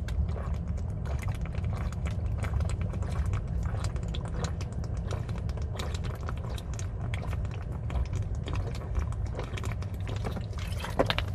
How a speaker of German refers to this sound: ich muss erstmal ein bisschen Wasser trinken.